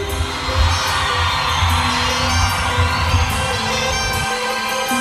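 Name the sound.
crowd screaming and cheering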